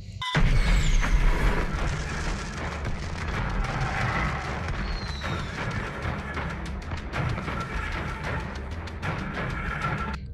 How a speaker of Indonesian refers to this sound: nah ketika mercunnya itu meletus semua mercun itu meletus kiri kanan dari rumah itu